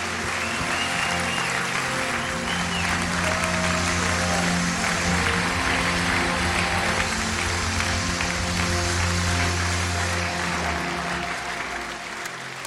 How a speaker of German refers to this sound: lasst uns sie doch mal ganz herzlich willkommen heißen mit einem lieben Applaus.